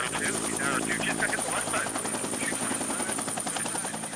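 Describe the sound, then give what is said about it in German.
A helicopter climbs into the sky carrying six men armed with fully automatic machine guns, heading for a wild boar hunt in Texas. Its rotor thumps in a steady, rapid pulse over a continuous engine whine and drone, loud, with no change in pace over a few seconds. “Ein Helikopter schraubt sich ein paar Kilometer weiter in den Himmel.”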